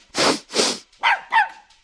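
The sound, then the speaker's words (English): A dog barks: two loud, harsh barks in quick succession, followed by two higher, yelping barks with a whiny edge, all within about two seconds, with no talking. “Others might smell breakfast or dinner or your dog.”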